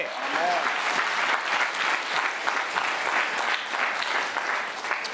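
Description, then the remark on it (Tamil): An audience applauds steadily for several seconds, a dense, continuous wash of many hands clapping, with a faint voice briefly audible near the start. “என்ன செய்வாரு செய்வாருன்ற கைதட்டு கைதட்டு தேவன் எல்லாத்தையும் செய்வாரு”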